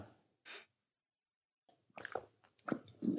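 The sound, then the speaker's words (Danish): Someone takes a sip of water: a brief breathy burst, a pause of silence, then a cluster of soft wet mouth clicks and gulping swallows, fairly quiet with no talking. “jeg, tager, jeg tager lige en tår vand her”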